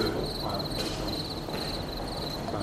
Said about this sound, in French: Donc là, j'ai un élevage de grillons.